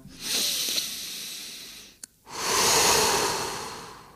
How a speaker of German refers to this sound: einmal durchatmen, mit dem Ausatmen die Schultern einmal locker lassen.